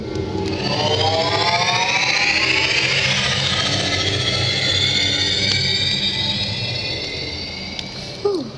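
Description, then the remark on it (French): A loud, sustained engine roar with a rising, whining tone sweeping upward, like a rocket blasting off, holding steady for several seconds before easing slightly and ending with a brief thump. “Attention au départ, ignition sequence started. 3, 2, 1.”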